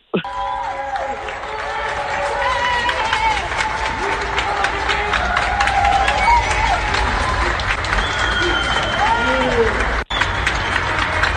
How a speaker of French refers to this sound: et en Belgique là c'est à 20h c'est le mouvement bravo pour les soins. Les gens sortent littéralement sur leur balcon pour applaudir le personnel soignant. Je vous fais entendre ça,